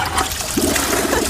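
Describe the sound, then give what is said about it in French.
A toilet flushes, a brief rushing, gurgling wash of water that fills the whole moment without any voices. “Franchement, je trouve cette dernière saison tellement décevantes que si ils ont foiré le tout dernier épisode de cette saison, le seul trône sur lequel va finir la série, c'est celui-là.”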